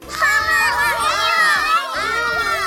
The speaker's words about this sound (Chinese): 七个孩子欢呼起来，他们搂着巨人爸爸，又笑又跳。